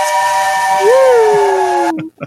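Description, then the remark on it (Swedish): A loud steam train whistle blows a sustained, multi-toned chord for about two seconds, with a hissing rush of steam underneath, then cuts off abruptly. “det där roliga med tåget.”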